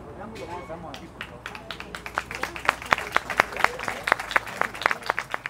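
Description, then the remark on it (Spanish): An audience at a church Mass breaks into applause for the institution, its workers and the elderly residents, the claps starting sparse and quickly building into dense, steady clapping that grows louder, with faint murmuring voices underneath. “Bueno, que se oiga el aplauso para la institución, para los trabajadores, los abuelos, que Dios les bendiga, que Dios les acompañe.”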